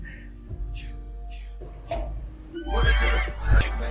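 A horse neighs loudly in a long, shrill whinny that swells in the second half, over a deep thumping bass beat and faint tonal accents at the start.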